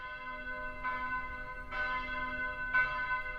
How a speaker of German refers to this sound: Fern der Berge hört man im Zentrum von München die Glocken der Frauenkirche schlagen.